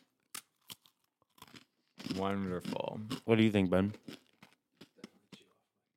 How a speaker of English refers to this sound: do you want to pop these pretzels open? I do. I'm worried about chomping.